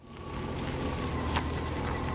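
A car rumbles steadily along a narrow red-earth dirt track to a farmer's fields at Oulet Agil, Morocco, about two hours from Rabat, kicking up dust. Its low engine drone is continuous, with a faint whine and a brief rattling bump partway through.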